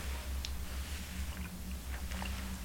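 Someone takes a quiet first sip of the day of slightly cooled, bitter black coffee without sugar, with a few soft, brief mouth and slurping sounds over a steady low hum.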